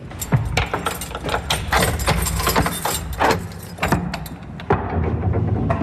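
The old west door of a tenth-century church being unlocked and opened: keys jangle, a lock clanks through several metallic clicks and knocks, then heavy wooden thuds as the door gives way. No one speaks.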